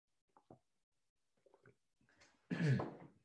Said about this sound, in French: Alors, ensuite, euh, je bois une gorgée, excusez-moi.